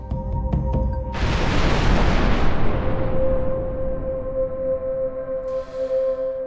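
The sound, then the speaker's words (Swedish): After a low humming lead-in, a huge, loud explosion bursts out as a solid iron asteroid the size of a stadium strikes at 50,000 km per hour or more from almost straight above, then rolls into a long, deep rumbling roar that slowly fades. “Tänk dig en solid klump av järn, stor som Olympiastadion, som kommer farande i 50 000 kilometer i timmen eller mer, mer eller mindre rakt uppifrån. Då smäller det.”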